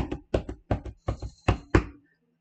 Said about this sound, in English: That was the tambourine.